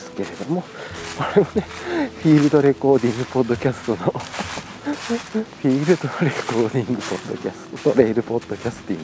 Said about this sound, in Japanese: 今ねちょっと公園のトレイルコースでだいぶね落ち葉が深くなってきてるんでこう秋めいたね音がしてると思うんで